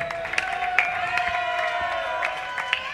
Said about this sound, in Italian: già l'ho presentato prima, fategli un applauso ancora.